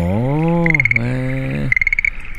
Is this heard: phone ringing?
no